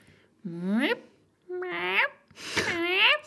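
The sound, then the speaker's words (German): A person imitates a strange bird heard peeping oddly one morning, with three rising, squeaky peeping calls, each about half a second long with short pauses between, fairly loud in a high, wavering voice. “als ich am Samstag bei dir geschlafen habe, habe ich einfach morgens so einen ganz komischen Vogel gehört, der hat ganz komisch gepiept.”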